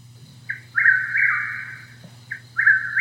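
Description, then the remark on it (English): A Chuck-will's-widow nightjar calls twice, each time a short soft cluck followed by a loud, rolling whistled phrase, clear over a low steady background hum. “That's a Chuck Will's widow. And so they're both night jars.”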